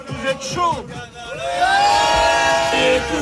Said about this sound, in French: Grosse ambiance hier soir au Stade Bollard pour soutenir les amateurs de 6ème division face à l'ogre parisien. Et il a fallu chauffer la voix.